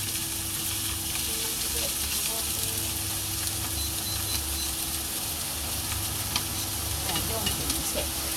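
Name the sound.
heavy rain falling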